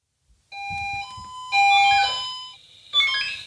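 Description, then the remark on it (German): An old Swiss Quattro firefighter pager alert sounds alone, alerting to a call-out: a sequence of steady electronic tones stepping between pitches, each held about half a second, loud, ending with a higher bright tone. “das ist ein alter Piepser Swiss von Quattro gewesen, der da alarmiert hat.”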